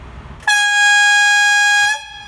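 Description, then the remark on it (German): A VT2E diesel railcar's horn sounds one steady, loud blast of about a second and a half, a bright multi-tone whistle that starts sharply and cuts off, with no talking. “Und jetzt hören wir nochmal eins der schönsten Geräusche, die Pfeife.”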